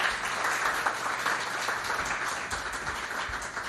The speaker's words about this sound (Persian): لطفا تشویقشون بکنید تا ایشون بیان بالا ما در خدمتشون باشیم